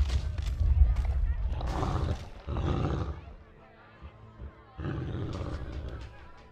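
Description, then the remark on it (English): A loud, snarling beast roar, like a man turning into a wolf, erupts in long growling bursts, fades briefly to a low rumble, then surges again. “Did he just turn into a wolf?”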